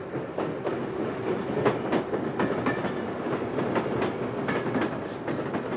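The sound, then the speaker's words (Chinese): A steam pumpkin train, winding back and forth like a roller coaster as it approaches from far away, rumbles steadily along: a dense low roar broken by regular clickety-clack knocks of the wheels, holding an even loudness throughout with no voices. “那是一列蒸汽南瓜火车，它拐来拐去的开了过来，就像云霄飞车一样啊，疯狂又刺激。”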